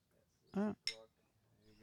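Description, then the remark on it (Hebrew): Two short, bright bursts in quick succession, a voice mimicking the clink of glasses in a 'l'chaim' toast to friends, clinking from afar, rather than real glassware, fairly loud over a quiet background. “לחיים, חברים. לצ'יים. I'm clicking from far. קליק, קליק, קליק.”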